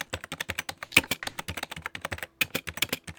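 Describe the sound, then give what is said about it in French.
Rapid typing on a Windows computer keyboard while checking whether Windows has crashed, with dense irregular clicks and a few sharper, louder keystrokes. No voices are heard. “Ouais, alors justement, juste si je peux parler, je fais ma rabat-joie, hein, mais faut que je vérifie si Windows a planté ou pas.”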